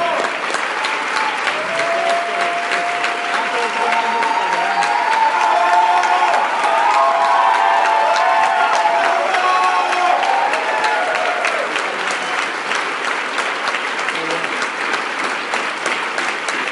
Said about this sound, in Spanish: Estos aplausos son para ustedes. Ustedes están en el escenario, vívanlo, o sea, síganlo haciendo. Así se siente.